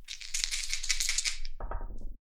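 Two six-sided dice (2D6) rattle quickly for about a second and a half, a dense clatter of small hard clicks, then drop and tumble briefly to a stop on a surface.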